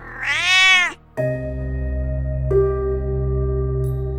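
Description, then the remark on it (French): A single loud, drawn-out cat meow rises and falls for about a second, then gives way to a steady, low humming drone that continues to the end. “Au bout de quelque temps, la blessure du chat guérit, mais elle reste très effrayante.”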